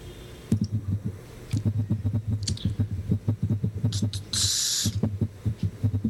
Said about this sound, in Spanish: Pues no, estaba tecleando simplemente. Ah, joder, macho, pues parece que está tocando tambores.